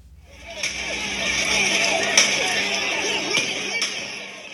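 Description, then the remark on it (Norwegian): Several sharp, sporadic cracks of gunfire from security forces in Myanmar firing on hundreds of protesters ring out over a dense, noisy crowd of voices in an open street, with the shots spaced irregularly. “Dette her er lyden av sikkerhetsstyrkene i Myanmar som plaffer løs mot hundrevis av folk på gata.”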